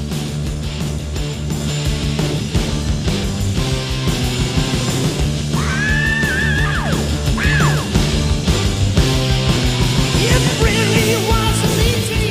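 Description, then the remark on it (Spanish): Loud, dense rock music plays throughout, and midway a singer lets out high, sliding screams that soar over the band for a few seconds before the track carries on. “quizás te suene conocido, porque a donde vaya entra gritando de esta manera.”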